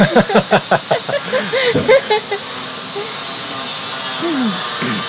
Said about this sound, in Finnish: Nyt joku sirkkelöi tuolla jossain.